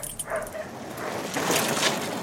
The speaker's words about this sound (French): Ils étaient attachés dans la cour et ils aboyaient très fort et ils tiraient sur leur chaîne dès qu'un cycliste passait.